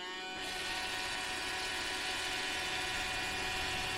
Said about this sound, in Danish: Det er lyden af en støvsuger. En støvsuger? Jeg troede, det var en fed robot, det er en robot. En robotstøvsuger.